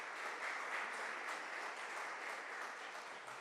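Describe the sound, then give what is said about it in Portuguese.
An audience applauds the Lord Jesus Christ steadily, a dense wash of many hands clapping at an even loudness throughout, with no voices standing out. “E se você quer viver uma eternidade com Deus, aplauda o Senhor Jesus Cristo, irmãos.”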